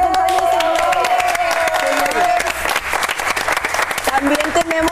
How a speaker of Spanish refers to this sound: aplaudiendo sola, ¿no?